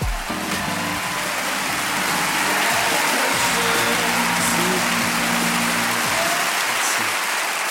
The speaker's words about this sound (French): faites du bruit, où que vous soyez, pour Sacha Ferra